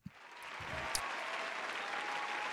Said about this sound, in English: Applause. What's the applause for, everybody?